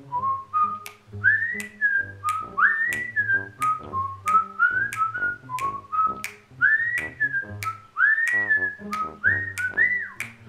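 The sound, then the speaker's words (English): A man standing outside a door whistles a lilting tune, the clear pitched notes rising and falling in short phrases for about ten seconds, with faint low rumbling underneath and no talking. “Well, all of a sudden, I hear the guy standing outside my door start to whistle.”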